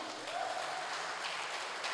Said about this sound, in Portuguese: em nome de Jesus, vamos aplaudir a Cristo bem forte.